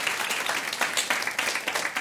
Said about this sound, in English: Oh my god, yeah. that's like, you better yeah. clap for that.